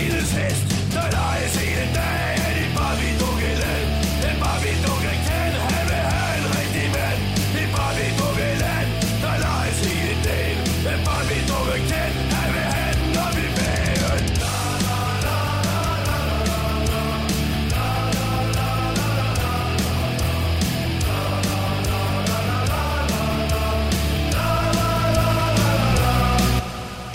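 A loud Danish rock song plays steadily with a driving drumbeat and dense, distorted guitars, shifting to a brighter section about halfway through before cutting off abruptly at the end.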